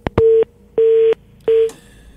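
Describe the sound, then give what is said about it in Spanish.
A telephone line tone sounds in three steady, mid-pitched beeps of roughly a third of a second each, separated by short gaps and preceded by a couple of sharp clicks, as an incoming phone call is about to be answered. No one speaks. “Es una historia que tengo aquí ya, pero voy a contestar antes la, llamada telefónica, señores.”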